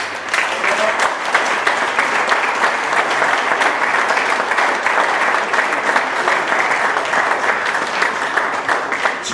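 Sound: round of applause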